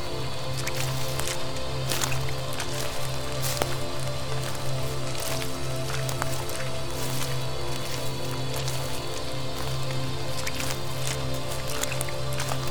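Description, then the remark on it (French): Squelching footsteps on a muddy forest path, wet and steady, with soft drips and light rain pattering all around under a low, constant hum. No one speaks. “Tu es bercé par le bruit de tes pas sur la boue du sentier.”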